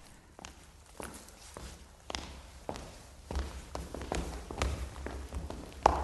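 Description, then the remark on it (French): Many footsteps thud and tap along a hard corridor floor, several people walking at once in an uneven rhythm that grows gradually louder as they draw nearer. “Dans le couloir, de nombreux pas approchaient.”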